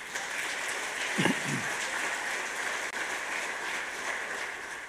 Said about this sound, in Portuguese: Aplauda o Senhor Jesus.